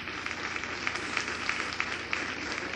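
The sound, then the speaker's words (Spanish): A church audience applauds for the King after a testimony, a steady wash of many hands clapping with faint rhythmic accents, moderately loud and sustained with no voices standing out. “Demos un aplauso al Rey.”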